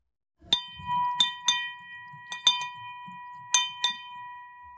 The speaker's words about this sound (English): So here at Hudson Kitchen, we have what we call a money bell that we ring when we're celebrating something. So um, in the lobby of the of, of my facility, like people will ring it like when they get their paycheck